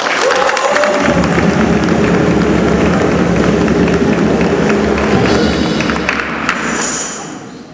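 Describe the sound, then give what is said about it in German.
A crowd breaks into sustained, loud applause in a church during a service, welcoming the Ortsvorsteher (local head) of Heidelsheim, dense clapping with some cheering that holds steady for several seconds before tapering off at the end. “Begrüßt auch ihn mit viel Applaus bei uns in unserem Gotteshaus.”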